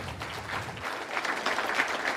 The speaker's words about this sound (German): Und ähm, ich schaue mal gerade hier in diesen Raum, falls hier viele stolze Eltern oder Großeltern sind oder Onkel und Tanten, dann geben Sie dem gerade mal einen kleinen Applaus, wenn es so sein sollte.